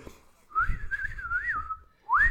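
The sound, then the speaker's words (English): Someone whistles clumsily in imitation of a character: a long, wobbly, tuneless phrase wavering up and down, then a brief pause and a short rising whistle, fairly loud. “It's just no, it's, a weird whistle.”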